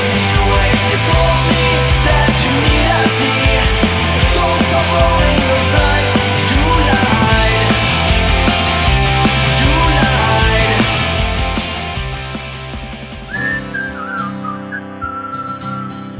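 A full-band rock song plays loud and steady with driving drums, bass and dense guitars, easing into a quieter, sparser ending with a lingering high melodic line.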